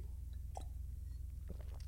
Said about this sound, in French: je vais juste prendre une petite gorgée.